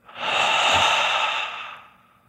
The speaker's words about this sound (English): Do it with me right now. Breathe. Breathe in through your nose. Lion's breath out.